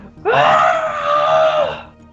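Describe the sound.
A single loud, sustained scream lasting about a second and a half, a desperate, wailing cry performed by a voice, with no talk around it.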